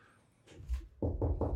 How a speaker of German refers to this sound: klopfen auf Holz.